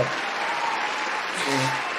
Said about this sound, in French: On peut les on peut les applaudir quand même, les amis. Hein. On peut les applaudir. Bravo le FC 4 Bravo pour votre prestation. Moi j'applaudis.